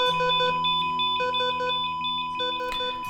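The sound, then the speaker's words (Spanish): Rapid electronic alarm tones beep in repeating clusters over a steady high-pitched tone from a hospital heart monitor measuring a weak heart rhythm, fairly loud with no voices. “un grupo de médicos, enfermeras y enfermeros gritando, dando instrucciones, colocando mangueras y el sonido desesperado del aparato que mide su débil ritmo cardíaco.”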